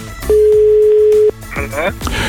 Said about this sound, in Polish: Uwaga, spróbujemy y, Łukasza nieco wkręcić. Uwaga, dzwonimy.